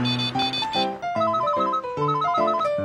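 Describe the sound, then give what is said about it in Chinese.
A mobile phone, left in a basket, rings with a bright electronic ringtone, a melodic tune of short repeating phrases that plays loudly and continuously with no one speaking over it. “哎哎，电话，我的电话嘞，放哪里呀？”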